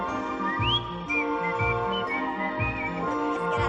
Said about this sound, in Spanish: Ella está descojonándose, jajaja, se le olvida la letra porque está silbando.